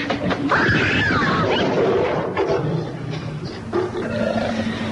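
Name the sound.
tiger roaring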